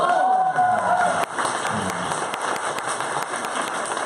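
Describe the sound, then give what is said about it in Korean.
An audience at the Kkoltong Show, held at a company, bursts into applause and cheering, with steady dense clapping and a few whoops rising over it, loud throughout the whole stretch. “여러분 박수 한번 다시 한번 주세요.”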